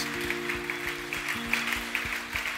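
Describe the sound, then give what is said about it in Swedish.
A church audience claps together for God in a steady, dense wash of applause, with sustained low tones and a few rhythmic thumps running beneath the clapping. “Kan vi inte ge Gud en stor applåd?”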